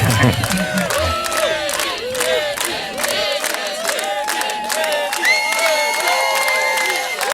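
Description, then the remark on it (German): A concert crowd cheers and screams continuously as the musician takes the stage, before the band has played, a dense wash of many high-pitched voices shrieking and whooping over one another, loud and sustained, with sharp claps and shouts cutting through. “Hört auf, Leute! Hört auf, beruhigt euch! Wir haben ja noch gar nicht gespielt.”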